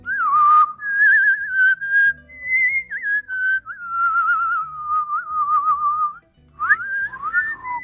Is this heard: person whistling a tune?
yes